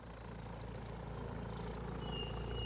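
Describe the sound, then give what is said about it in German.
A small Beechcraft Bonanza propeller plane engine idles steadily as the plane stands on a runway, a continuous low, throbbing rumble that holds an even level throughout, with no voices. “Sie liefen daran vorbei zur Startbahn, auf der ein Kleinflugzeug mit laufendem Motor stand.”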